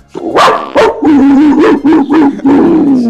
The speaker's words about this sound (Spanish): No, güey, está, mi perro acá, boludo, me ladro, mirá.